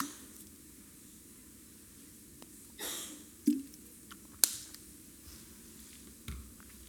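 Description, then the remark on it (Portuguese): Someone takes a sip of water: a soft swishing gulp followed by a few small clicks and handling noises, with no talking. “Enquanto isso, eu dou um golo d'água.”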